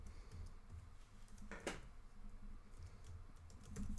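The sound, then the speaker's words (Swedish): Quiet, steady typing on a computer keyboard, a run of soft irregular clicks with one louder clack partway through, over a low background hum and no talking. “Jag skriver ner här.”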